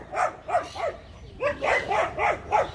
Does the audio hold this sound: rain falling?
no